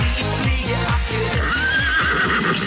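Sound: horse neighing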